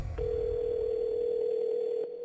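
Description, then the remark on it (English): A single steady telephone ringback tone from an unanswered call hums for about two seconds, then cuts off, heard clearly on its own over a faint low rumble with no voices. “Pick up the phone, Larry.”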